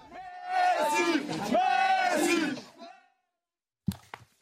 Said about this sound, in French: Voilà, de la joie des supporters argentins.